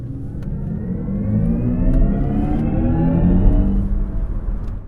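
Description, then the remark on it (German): A synthesized electric car drive sound in the vehicle's Sport "My Mode", a steady layered hum with rising harmonic tones that swell as if accelerating, loud with no talking. “Wenn ich jetzt auf Sport gehen würde,”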